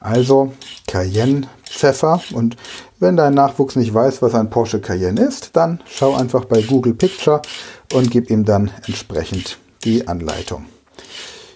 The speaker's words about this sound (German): Ja, du hörst im Hintergrund, ich schnippel weiter die Karotte.